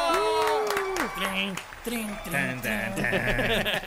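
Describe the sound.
Audience applause, a steady wash of clapping lasting a few seconds, with loud cheering and shouting voices rising and falling on top of it.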